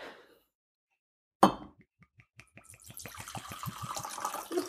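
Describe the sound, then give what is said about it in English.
A very generous drink is poured into a glass: a sharp clink, then glugging pulses that quicken and merge into a steady splashing stream. No one speaks. “just poured a very generous a pour.”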